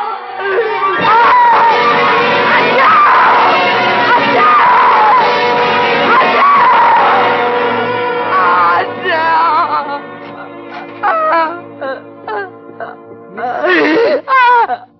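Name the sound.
woman screaming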